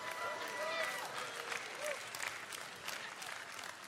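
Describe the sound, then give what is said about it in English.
A crowd applauds and cheers at the mention that the University of Kansas Jayhawks are playing for a national title Monday night, with dense, continuous clapping and a few high whooping cheers rising above it near the start. The noise stays fairly even and loud throughout. “But some of us are cheering.”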